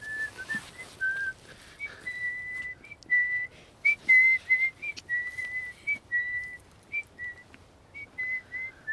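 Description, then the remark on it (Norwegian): A man whistles a tune alone, a steady melody of clear, sustained notes that step up and down in pitch with short breaks between phrases. “Så plystrer han for å holde humøret oppe.”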